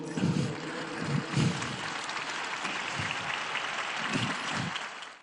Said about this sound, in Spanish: Al terminar la celebración, el Papa agradeció que tantas personas hayan rezado por él durante su estancia en el hospital. Los presentes respondieron con un aplauso.